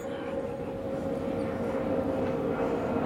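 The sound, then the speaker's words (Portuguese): An airplane passing overhead above a mountain drones steadily, a continuous low rumble with a faint humming tone, holding the same moderate loudness throughout with no voices. “um avião passando.”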